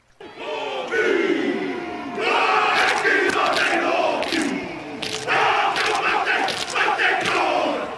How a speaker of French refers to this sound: C'est les All eh, voilà, c'est le haka, néo-zélandais. Les joueurs de rugby avant un match, c'est un peu leur chant de guerre, finalement, leur cri de guerre.